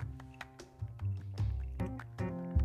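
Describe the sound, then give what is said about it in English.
Ice cubes clink against a glass of plum sake (umeshu) in a series of bright, ringing taps, mixed with wet slurping and liquid sounds as someone takes a sip of the drink. “I am uh, relaxing with a a glass of uh, plum sake, which is called umeshu in Japanese, but uh, I don't know if you can hear the the ice clinking in the glass there. I'm gonna take a sip.”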